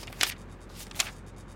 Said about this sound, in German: Gerd Heidemann und Hero Bus blättern durch ihre Notizbücher.